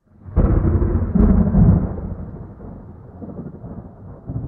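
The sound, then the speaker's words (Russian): A loud crack of thunder bursts in and rolls into a deep, heavy rumble that swells again before fading, with steady rain hissing underneath as the storm continues. “Тхэ наслал бурю на берег и выбросил ящик с младенцем, который нарты выбросили в море.”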